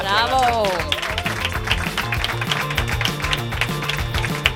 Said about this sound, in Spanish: ha gustado el truco? Sí, ¿no? le damos un aplauso.